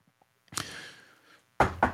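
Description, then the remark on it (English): Two quick, firm knuckle raps on a wooden surface, loud, following a softer thump and a brief hollow rumble. No one speaks. “Knock on wood.”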